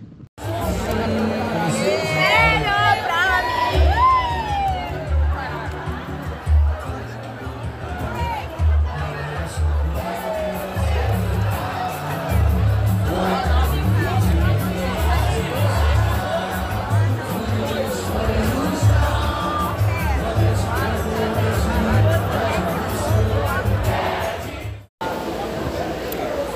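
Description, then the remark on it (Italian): A dense crowd outdoors at Praha 11 metro station, opposite the Sambadrome in Rio, at half past three, people trying to get home: continuous overlapping chatter and occasional shouts, a steady loud babble with low rumbling underneath, cutting off sharply near the end. “Ok, siamo a Praha 11, che è la stazione metropolitana di fronte al Sambodromo di Rio.”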